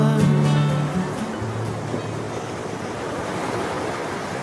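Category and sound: nature, sea waves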